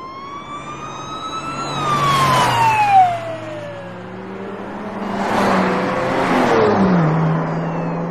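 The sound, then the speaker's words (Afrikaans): A police car siren wails as the car speeds past escorting a procession, its pitch sliding downward, with bursts of engine roar and road noise rising and falling around it. No one speaks. “Hy skakel dus die sirene van sy motor aan en begelei die optog teen 'n vreesaanjaende snelheid.”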